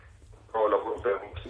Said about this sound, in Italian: Purtroppo si capisce molto male, sento una eco che disturba.